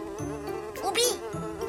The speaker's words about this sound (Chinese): 嗯，那些个苍蝇围着我嗡嗡嗡的转，嗯，纯属是碰巧的事儿。